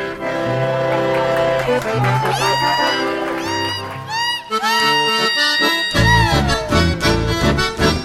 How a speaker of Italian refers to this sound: Quello che si ascolta è un sapucai. Il sapucai è una manifestazione del chamamesero. Si può gridare il sapucai come un festeggiamento, come una sfida, una rabbia o per sciogliere una grande emozione.